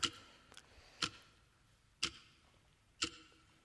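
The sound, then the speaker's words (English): A clock ticks steadily, about once per second, with crisp, sharp clicks and a fainter tick slipping in between the first two. The ticking stands alone against a quiet background, with no voices. “The ticking of a clock reminds us of the passage of time.”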